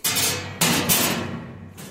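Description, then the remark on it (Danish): Metal autopsy instruments, including a ruler and tweezers, knock and clink against a steel table in a few sharp, bright strikes with ringing tails, fairly loud, with no talking. “Og der er så de forskellige instrumenter, de siger også lyde, når de ligger mod det her stålbord.”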